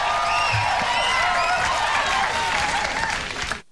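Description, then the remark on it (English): Steady audience applause in a played recording, an audience with Clinton Gore banners applauding midway through jokes, a dense wash of many hands clapping at once, holding an even level for about three and a half seconds before cutting off abruptly. “And there's plenty of jokes about womanizing, applauding midway through.”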